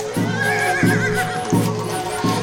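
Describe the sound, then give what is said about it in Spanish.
Soldiers' horses whinny and neigh repeatedly over a steady, regular clatter of hoofbeats, several animals fairly loud, with no voices. “Llegó el batallón Carchi y el batallón Imbabura. Soldados con caballos.”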